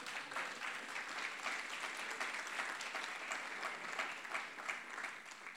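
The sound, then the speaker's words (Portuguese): Sustained audience applause for the Lord during an evening gathering, a dense wash of many hands clapping at a steady level for several seconds with no voices standing out. “Você pode aplaudir o Senhor aqui nessa noite?”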